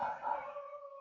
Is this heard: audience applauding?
no